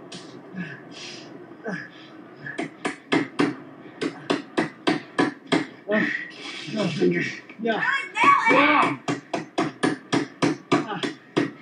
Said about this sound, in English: You need two pieces of wood. You got to hammer another one.